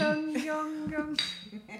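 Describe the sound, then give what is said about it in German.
Glasses clink together a few times in a toast, each touch leaving a bright, sustained ringing tone that overlaps the next. Moderately loud, with faint voices underneath. “Prost, meine Lieben. Prost. Prost. Prost.”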